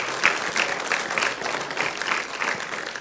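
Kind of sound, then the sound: crowd, audience applause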